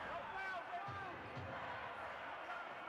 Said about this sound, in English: Waiting with a dribble.